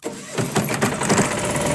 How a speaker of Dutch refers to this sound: Een groene aggregaat eh, maakt gebruik van een conventionele aggregaat, die ook gebruik maakt van uh, biobrandstof, waarin je door de combinatie aggregaat, batterij en zonnepanelen tussen 80 en 90 procent CO2-uitstoot kan eh, reduceren mooi, hè?